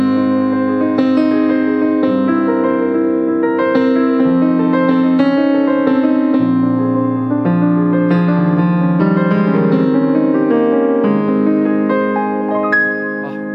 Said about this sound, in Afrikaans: Sewe van die mees romantiese klavierstukke ooit